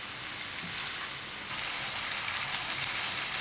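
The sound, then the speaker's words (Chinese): Shredded cabbage sizzles steadily in sixty grams of preheated vegetable oil while being stir-fried continuously to make vegetarian scallion oil crisp, a dense crackling hiss that grows noticeably louder about halfway through and then holds. No one speaks. “先预热六十克的植物油，然后将高丽菜丝放入油锅中。大家要一直翻炒哦，不然锅边的高丽菜丝会焦掉。”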